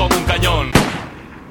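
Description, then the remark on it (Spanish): A single loud gunshot cracks out over a musical backdrop, a sharp bang that quickly fades into a lingering low rumble. “Cuando de pronto son un disparo”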